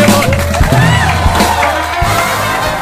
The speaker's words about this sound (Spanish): Dale un aplauso. Dale un aplauso, por aplauso. ¡Fuerte, bravo!